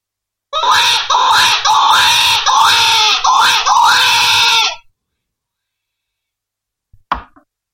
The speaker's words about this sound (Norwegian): Det er en litt mer sånn desperat, skjærende, fæl lyd uh, som jeg lager på en fløyte som heter Red River All Allround